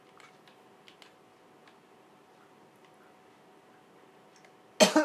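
A sudden loud cough, two rough bursts close together, breaks in at the very end after several seconds of quiet background with faint scattered ticks.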